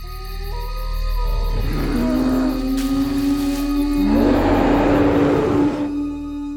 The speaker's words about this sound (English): Iemon was many hours into his trek through the forest when he heard the roar of a horrible monster in the trees. He was sure it was Oiwa, his dead wife.